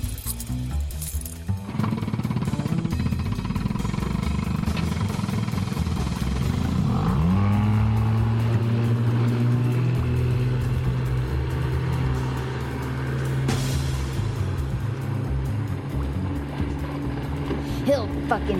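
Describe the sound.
A loud boat engine roars and revs steadily, its pitch sweeping up and then holding a sustained drone as the boat races at full throttle following another boat, with voices occasionally heard over it.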